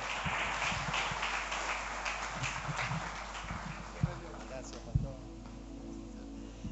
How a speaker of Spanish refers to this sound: Muchas gracias por ese aplauso y por ese saludo pero si es para Dios ese aplauso, déselo más fuerte.